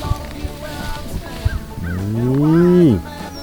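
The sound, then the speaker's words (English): A person moos at a cow in a remote part of North Carolina, trying to get it to move back: a drawn-out, moo-like call rises slowly and drops off sharply, lasting about a second, after a stretch of scattered outdoor knocks and rustling. “apparently saying moo to a cow does not get the cow to move back.”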